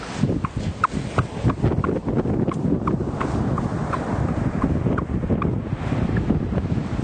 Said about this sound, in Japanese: 今バーレーヘッズのすぐそばのビーチに来ています今確認したらここ泣き砂なんですね歩ってたら聞こえますか波の音がうるさくて聞こえづらいかもしれないんですけど